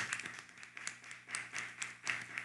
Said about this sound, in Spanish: ¿Por qué no le damos eh, from un fuerte aplauso Clap your hands for him. a Byron Cisneros?